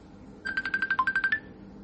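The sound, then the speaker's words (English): A mobile phone ringtone plays a quick run of about ten bright electronic beeps in a steady rhythm, clear, with no one talking over it. “Oh, you got your phone on.”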